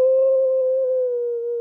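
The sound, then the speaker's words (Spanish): A person mock-wails in one long, sustained, fairly loud tone that holds steady in pitch for under two seconds, an exaggerated fake cry that sounds almost like a howl. “Soy yo llorando.”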